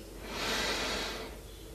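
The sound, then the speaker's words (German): A single slow, deep inhale, the first deep breath taken, a soft airy rush that swells for about a second and then fades, with no talking. “Wir nehmen den ersten tiefen Atemzug und atmen ein.”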